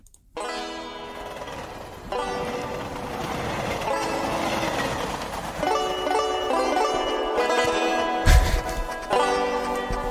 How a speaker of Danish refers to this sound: Jeg griner, det er fordi, jeg kan høre den her musik, det lavet i et eller andet computerprogram, hvor der bare er nogen, der trykker på deres keyboard, og så, det sagt, så, det, så siger det pling for dem.